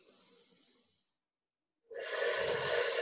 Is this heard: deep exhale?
yes